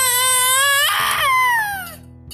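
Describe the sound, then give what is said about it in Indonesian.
A baby screams and cries in a loud, high-pitched wail that breaks into a harsh, raspy burst midway, then resumes as a falling cry that trails off. “Putri Sabradabra menjerit menangis.”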